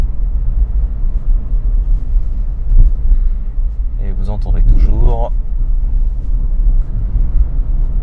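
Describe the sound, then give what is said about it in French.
Steady low road rumble from inside a quiet electric car driving through town at about 40-45 km/h, with other cars passing and a faint hum of traffic around it; a man speaks briefly partway through. “ce silence, enfin certainement les autres voitures qui passent.”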